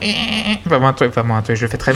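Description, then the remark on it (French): A voice imitates a dog-like guitar sound, a held nasal tone followed by a rapid run of short, pulsing bleat-like yelps, with a few spoken words mixed in. “J'ai l'impression que c'est un bruit de chien.”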